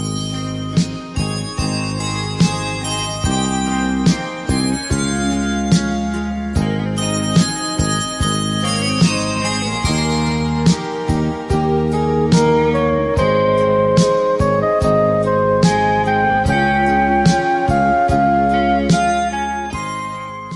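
A recorded Korean ballad plays on a radio show at a listener's request, at a steady, full level, with sustained melodic tones and bright, chiming bell-like accents over a warm low accompaniment; no one talks over it.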